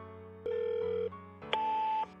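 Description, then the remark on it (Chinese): A telephone rings with two steady electronic tones, each lasting about half a second, the second pitched higher and starting with a faint click, as a call is placed to Hu Wei. There is no talking. “他给胡伟打去电话。”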